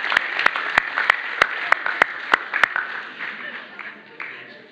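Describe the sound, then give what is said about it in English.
A small group claps their hands after singing the song "My Hat, It Has Three Corners" really fast. It is a brief burst of sharp, uneven claps, which thins out and fades after a few seconds amid faint background murmur. “Okay, give yourselves a clap.”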